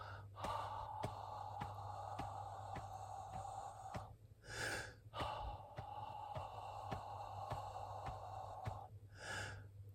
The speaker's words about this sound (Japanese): 基本的には息の出し入れに声を乗せるだけです。さあ、一緒にやってみましょう。えー、っと、歯の口で7拍吐いて8拍目に吸う。この繰り返しをちょっとやってみますね。聞いてってみてください。